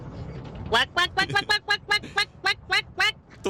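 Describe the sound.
A person imitates a duck, letting out about a dozen rapid, nasal quacks in a fast, steady rhythm, loud, after a brief quiet moment.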